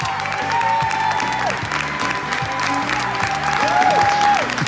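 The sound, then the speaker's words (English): Members of the New York State Legislature applaud steadily for several seconds after voting to allow full-term abortion, high-fiving, with dense clapping mixed with whoops and cheers rising above it, loud and continuous throughout. “They were high fiving, they were cheering.”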